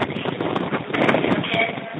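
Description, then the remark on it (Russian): Evening wind gusts steadily into the microphone as the day's heat subsides, a loud, rough rushing roar with uneven buffeting that fills the whole two seconds without a break. “Тут, помимо всего прочего, еще вечерний ветер”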